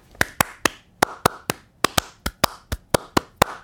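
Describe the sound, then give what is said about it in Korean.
A burst of sharp hand claps, about thirteen in all, grouped roughly in a three-three-seven cheering pattern: two quick sets of three followed by a longer run, with no talking. “자, 337 박수도 해드려요.”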